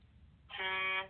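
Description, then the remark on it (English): A single loud blast of an air horn sound effect, a bright, brassy tone with strong harmonics that kicks in abruptly after a quiet moment and holds steadily for about half a second. “Okay, air horn.”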